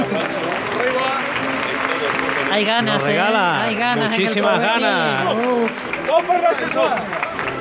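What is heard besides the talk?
crowd applauding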